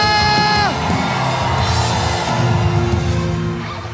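A crowd erupts in loud shouting and cheering in response to a preacher's call to shout if they believe, with one strong voice holding a rising whoop at the start before the mass of yells carries on steadily throughout.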